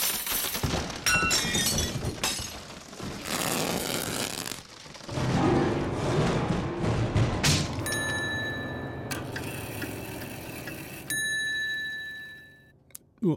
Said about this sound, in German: Du schmeißt noch den Baum um. Und dann, dann fällt noch so viel anderes Zeug runter. Achtung! Ah, der Baum fällt!